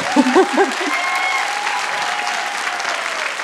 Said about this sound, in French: Vous pouvez applaudir, ouais, franchement.